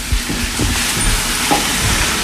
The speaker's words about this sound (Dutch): Oh, je moet die, eh, even een vraagje, je moet die kool echt roerbakken, die stoom die roerbakje echt. Dus hij moet nog een beetje knapperig blijven.